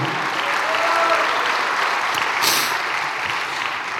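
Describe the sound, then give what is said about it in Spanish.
A church audience applauds steadily at the pastor's call to give applause to God, a dense, sustained wash of many hands clapping at even loudness for several seconds, with no voices rising above it. “Qué bueno, me alegro, denle un aplauso a Dios.”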